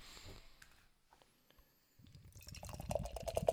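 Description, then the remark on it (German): Beer pours from a can into a glass, starting as a quiet trickle and swelling into a steady, louder gush with fizzing, bubbling texture toward the end. “Schauen wir mal, wie eilig das Bier aus dem Glas aus der Dose will.”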